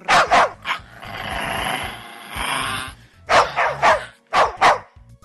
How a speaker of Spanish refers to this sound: ¿Qué veían mis ojos? Un valiente justiciero de cuatro patas, un hermoso perrito, se había lanzado con furia asesina y la palabra venganza brillando en sus dulces ojitos. El cánido mordió, arañó y se orinó literalmente en aquel orcógrafo galán.